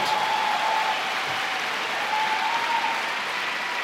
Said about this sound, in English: Come on, give the Lord a hand.